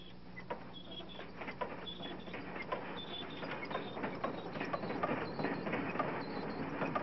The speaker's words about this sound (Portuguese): Agora você fique ligado, porque eu vou mostrar pra você, pra você aí, o jogo do trem. Fica ligadão, hein? Vai sair agora.